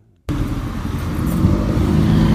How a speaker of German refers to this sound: Stehen hier gerade an der roten Ampel.